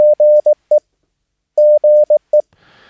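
Morse code tones for a short CW abbreviation used in CW QSOs, keyed twice as brisk dots and dashes on a steady mid-pitched beep, followed by a faint burst of hiss.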